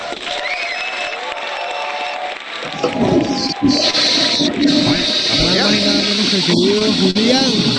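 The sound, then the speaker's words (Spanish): Steady, loud applause for a birthday fills the whole stretch, a dense wash of clapping with scattered voices cheering and calling out over it, growing fuller after the first few seconds. “Así que quiero dedicarle estos cuatro segundos de aplauso.”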